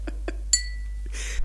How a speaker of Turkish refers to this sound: Ah, ah, güzel altınlarım, sarı kızlarım benim. İşittiğiniz bu altın sesidir. Kaç kişi duyabilmiş bu müziği yeryüzünde?